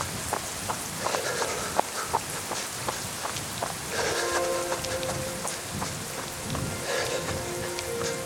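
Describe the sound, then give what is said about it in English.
Steady rain hisses throughout while irregular splashing footsteps of a person running in light, thin-soled shoes slap through puddles and potholes; partway through, a low sustained hum rises beneath the downpour. “Water comes from above and below, my feet dropping into potholes and rivulets of rain streaming down my face.”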